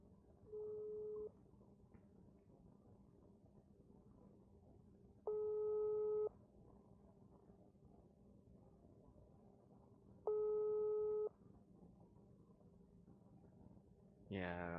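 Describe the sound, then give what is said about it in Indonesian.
A phone's ringing tone plays while an outgoing telephone call connects: three steady, medium-loud tones about a second each, repeating every five seconds over a low hum, ending with a brief burst of noise. “Kita hubungin via telepon.”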